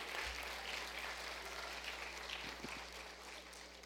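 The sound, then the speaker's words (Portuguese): An audience claps to applaud God, a dense wash of overlapping hand claps without pause and no voices, holding a fairly even level throughout before easing slightly toward the end. “Glória a Deus que o Intertim está aqui para aplaudir esse Deus maravilhoso.”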